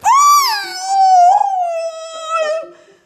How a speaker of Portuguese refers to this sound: O BGA puxou o broche enterrado no tornozelo do Come Carne Crua, que deu um uivo de dor.